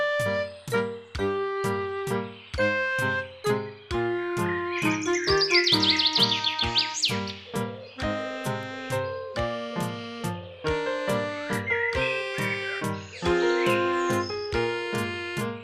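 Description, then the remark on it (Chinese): Small birds chirp in quick, high-pitched bursts, strongest in two busy flurries, over a steady rhythm of soft plucked musical notes. No one speaks. “现在，请你想象一下，你在一条路上走着，你听到一阵阵的小鸟叫声。”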